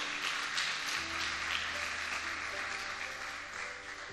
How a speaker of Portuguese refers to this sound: Se você crê, aplauda Jesus porque ele é bom.